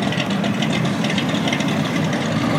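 A muscle car engine idles with a deep, steady rumble and a loping, throaty pulse, fairly loud, running continuously with no voices over it.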